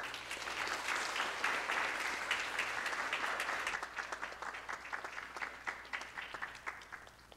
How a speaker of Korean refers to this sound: 여러분 뜨거운 격려의 박수를 우리 선교사님 모시겠습니다.